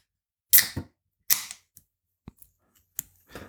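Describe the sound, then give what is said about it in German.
A can being opened, with several sharp metallic cracks and short bursts of fizzing, separated by small clicks and brief pauses, all clear with no talking. “Ihr hört eine Dose, habe ich aber schon gesagt.”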